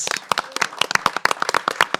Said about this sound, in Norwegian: Altså, han skal, han skal få en applaus, han.